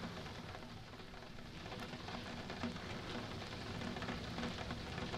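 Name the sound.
rain falling outside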